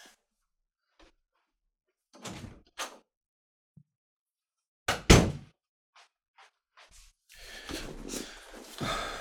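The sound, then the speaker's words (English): A few soft knocks and shuffles lead up to a sharp door slam as a door is shut to lock a cat out, followed by quieter clicks and a stretch of rustling movement; no one speaks. “My cat is being very I need to lock my cat out.”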